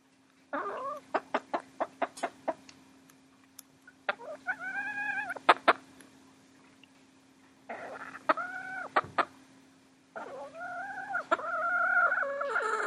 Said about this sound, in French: C'est-à-dire que les poules ont un langage, elles se parlent entre elles et parfois elles me parlent aussi.